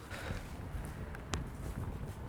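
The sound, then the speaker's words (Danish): Hurried footsteps of people running downhill to a flag-raising, a steady stream of soft thuds under rough, rumbling wind and movement noise, with one sharper knock partway through. “Kom, vi løber derned.”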